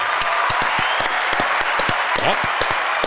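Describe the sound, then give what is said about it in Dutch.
Steady applause for a listener's Bitcoin donation, a dense wash of hand claps with sharper individual claps popping out, sustained at an even, fairly loud level throughout. “Hilbers, goed bezig. Applaus.”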